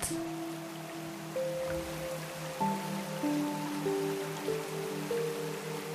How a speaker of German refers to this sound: Du stellst dich unter den Wasserfall und genießt das frische Plätschern auf deiner Haut.